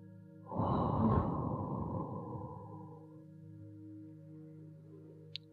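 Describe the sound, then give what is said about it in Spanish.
A single long, breathy exhale made as the kidney healing sound in a breathing exercise, a soft whooshing blow that starts suddenly and fades over about two and a half seconds, over a steady low droning hum. “Inspira profundo y realiza el sonido”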